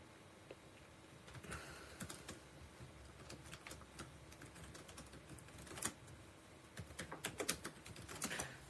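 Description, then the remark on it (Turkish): Steady, irregular clatter of keys being typed on a computer keyboard, fairly quiet, with quicker bursts of keystrokes near the end and no voices. “Buradan e, yazıyoruz.”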